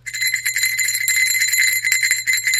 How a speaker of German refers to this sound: Moment, ich muss klingeln. Okay, die Schulglocke läutet.